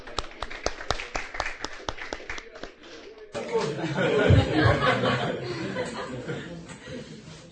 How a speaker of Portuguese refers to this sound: Vamos pro salve de palmas.